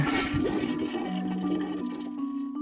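A toilet flushes with a loud, steady rush of water and a low gurgle beneath it, tapering slightly toward the end of the short burst. No one speaks.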